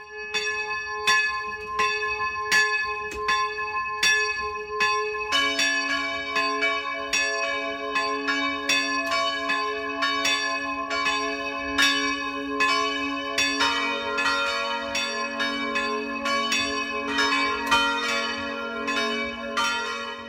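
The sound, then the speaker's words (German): Church bells in Enkering, a village in the Eichstätt district belonging to Markt Kinding, ring the 12 o'clock midday peal steadily and resonantly, with a second, deeper bell joining after a few seconds and a third later, their overlapping strikes forming a continuous, full peal with no voices. “Das Mittagsläuten kommt heute aus Enkering, einem Dorf im Landkreis Eichstätt, das heute zum Markt Kinding gehört.”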